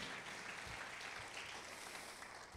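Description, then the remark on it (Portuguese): An audience applauds the Lord in a steady, dense wash of clapping that holds at an even level throughout, with no voices standing out above it. “Pode aplaudir o Senhor pela tua vitória.”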